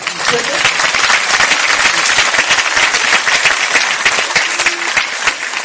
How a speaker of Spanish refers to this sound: Yo creo que eso merece un aplauso por el cocodrilo.